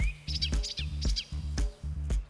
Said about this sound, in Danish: I lighed med stæren er guldbuen en mester i at efterligne andre fuglestemmer. Guldbuen, en mester i at efterligne andre fuglestemmer.